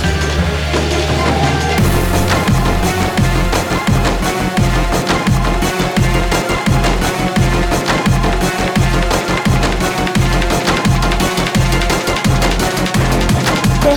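A loud electronic music track with heavy, pulsing bass hits and dense, gritty synth layers; it opens sounding muffled before bursting into full range after about two seconds, with no voices.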